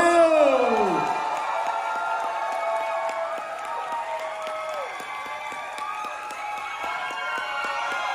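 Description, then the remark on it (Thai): An audience at a business talk applauds and cheers loudly and steadily for several seconds at the speaker's request, with dense clapping beneath shrill whoops and whistle-like cries that swoop at the start. “ขอเสียงปรบมือ คนที่อยากเป็นหน่อยเร”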